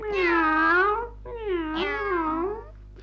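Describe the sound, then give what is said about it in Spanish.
A cat meows twice in a row, two long drawn-out cries with wavering pitch, each about a second long, loud, with a short pause between them. “Era tan buena persona, tan pelmazo y bonachón, que para comer jamón pedía permiso a Ramona la cocinera pelona que solo le daba al gato la carne del garabato.”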